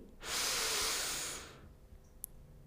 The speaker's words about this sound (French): Inspirez profondément pour vous dynamiser.